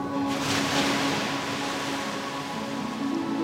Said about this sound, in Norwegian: Nå ser man bare hvite, skummende bølger som slår over skjæret.